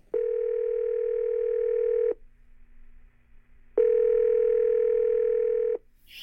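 A telephone ringback tone sounds twice, each steady buzzing burst lasting about two seconds with a pause between, heard clearly and up close with no one talking.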